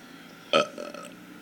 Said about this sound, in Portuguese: Mas eu não tô com vontade de arrotar